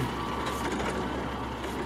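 A garbage truck's engine rumbles steadily as a man throws waste into its bin, with a continuous mechanical whir and hiss and no voices.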